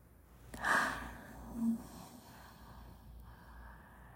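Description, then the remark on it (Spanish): A single deep breath pushed out during a guided breathing exercise, starting with a breathy rush and trailing off over about a second into quiet room tone. No one speaks. “Exhala.”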